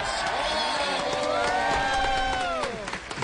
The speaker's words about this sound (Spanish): Recibamos con un fuerte aplauso al señor Diego León Hoyos.